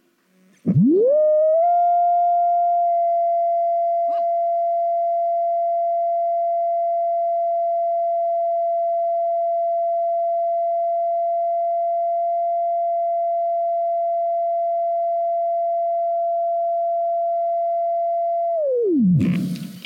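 A loud, steady pure tone from a tone generator, aimed at a glass to try to shatter it, sweeps quickly up to a fixed pitch, holds unwavering for about seventeen seconds, then slides abruptly down and cuts off, with no voices present.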